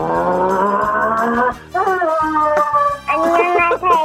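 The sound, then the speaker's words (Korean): A voice does an impression of a racing car for an impression contest, with loud, sustained buzzing engine tones that rise in pitch, break off briefly, then restart in several revving bursts, alone. “자, 경주차 소리 들어보겠습니다.”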